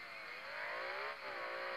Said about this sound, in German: Und er hat halt auch so einen äh, naturally aspirated Motor. Spoiler. Und die hören sich so geil an.